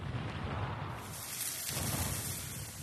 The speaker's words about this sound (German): Die Nadel erwärmt sich, dann schießt heißes Gas in einer kleinen Explosion heraus. Die Öle in der Nadel verdampfen und explodieren.